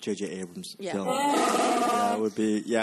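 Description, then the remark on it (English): A loud, gurgling growl from a hungry man's stomach rumbles for about a second in the middle, overlapping his speech, with a rough, warbling texture before the talk continues. “That was my stomach.”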